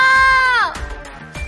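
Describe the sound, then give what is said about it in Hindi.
A girl's high, sustained scream of fear that wavers and then bends downward as it breaks off, followed by brief, fainter noises. “दूसरी तरफ रोते हुए मुग्धा के कानों में जैसे ही जूही के चिल्लाने की आवाज पड़ी मुग्धा ने अपनी आंखें खोली और उसके मुंह से निकला जूही ये तो जूही की आवाज है”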